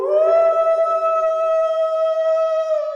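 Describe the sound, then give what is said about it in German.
An untrained singing voice scoops quickly upward into a high note, then holds it steady and loud without vibrato for a few seconds. “Man denkt, okay, der Höhepunkt ist erreicht, aber dann dreht die Stimme nochmal auf und schleift zu diesem hohen Ton.”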